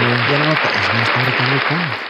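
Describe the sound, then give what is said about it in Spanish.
Steady applause from an audience, a dense, even patter of clapping that lasts throughout, with a man's voice speaking over it. “Un aplauso para el mae ahí.”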